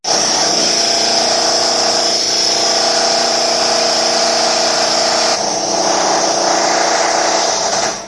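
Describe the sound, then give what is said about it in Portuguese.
A power drill whines loudly and steadily, grinding into a hard drive, its pitch dropping and roughening partway through before carrying on without pause. “Daquele vídeo dos tiozinhos da Sam pegando HD e passando uma furadeira.”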